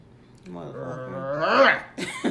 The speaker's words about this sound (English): I did growl, y'all. I don't know. Did yes, you hear me growl? Did. Yes, I heard it.